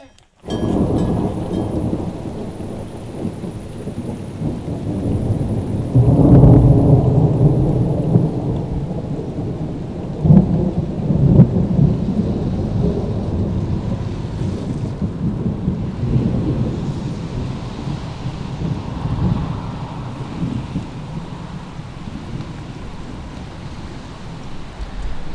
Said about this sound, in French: c'était son seul orage, gros gros coup de tonnerre.